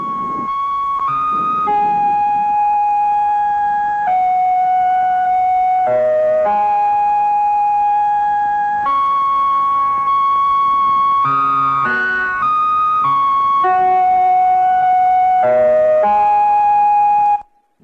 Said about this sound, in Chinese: 各位，这是四十八年前从宇宙空间传回的第一个中国声音，它叫东方红。